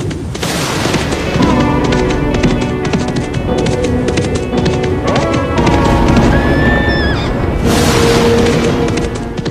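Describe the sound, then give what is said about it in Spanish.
A black mule ridden by a woman whinnies as it approaches amid a steady, dense clatter of hooves, with low booming rumbles underneath; the scene stays loud and busy throughout, with no one speaking. “Abran paso, abran paso que se acerca. Ser un macho negro y una mujer la que lo monta.”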